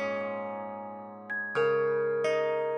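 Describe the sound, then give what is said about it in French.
Soft, sustained bell tones from a live sound stream of online encyclopedia edits ring out and overlap, each bell marking someone adding content to an article, with a new chime struck three times in the last half, each adding a bright attack over the lingering hum. No one speaks. “Un son de cloche, c'est quelqu'un qui ajoute euh, du contenu à un article.”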